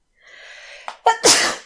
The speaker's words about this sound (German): Gesundheit. Ah, guck mal. Ja, warte, ich wollte unbedingt mal in den Podcast niesen.